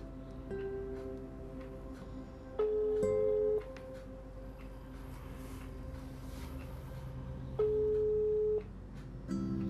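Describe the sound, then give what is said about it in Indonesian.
A telephone ringback tone sounds in two steady, loud bursts about five seconds apart over a low background hum, and nobody picks up. “maka dari itu gue akan nelpon dia dan siapakah bintang tamu kita malam hari ini penasaran kan penasaran dong penasaran nih kita telepon”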